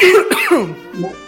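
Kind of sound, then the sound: human body sound, cough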